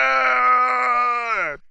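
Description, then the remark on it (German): A single loud, sustained guttural war cry from a human voice imitating charging hobgoblins shouting "Maglubjet!", held steady for over a second before dropping off abruptly. “So, es gibt aber noch drei weitere Hobgoblins und die ziehen ihre Zahnklingen und stürmen auf euch zu und schreien laut Maglubjet!”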